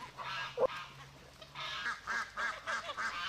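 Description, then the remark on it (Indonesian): A group of ducks quacks repeatedly in short, nasal bursts, several calls overlapping in a quick uneven rhythm, moderately loud, with no talking. “Eh, tapi ini kenapa bebek-bebekmu kok kelaparan?”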